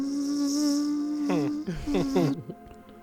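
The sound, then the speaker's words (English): A thin, steady mosquito buzz hums, then wavers up and down as if circling, before cutting off abruptly. “In the low morning light, he hears a small buzz.”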